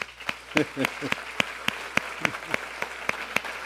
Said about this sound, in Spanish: ¿Les damos un aplauso a todos ellos o no?